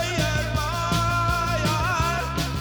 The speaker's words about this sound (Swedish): Oh, så jävla bra låt.